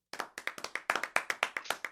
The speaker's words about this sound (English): Round of applause. Round of applause. Oh yeah, let me, let me put it up.